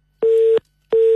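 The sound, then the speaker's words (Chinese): A telephone busy tone after a call suddenly cuts off when the caller's phone battery dies: two steady, mid-pitched beeps of equal length separated by a short silence, loud and clear with no voices. “电话突然断掉了，我们请导播重新接通一下这部电话。”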